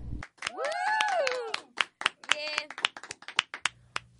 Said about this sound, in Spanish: Niñas, por favor, un aplauso para Brandy y obviamente para nuestro querido corresponsal.